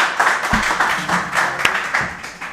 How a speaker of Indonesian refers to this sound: Saya panggilkan …. Tepuk tangan atuh.